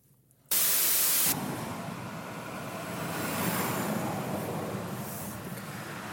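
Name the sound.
motorway traffic passing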